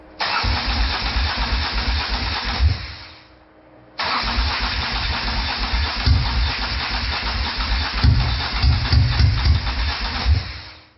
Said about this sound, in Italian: Così, un meccanismo nemmeno troppo complicato come un bicilindrico AV di 850 cm3 fa una cosa opposta a quella per cui è stato realizzato e anziché mettersi in moto si ingolfa.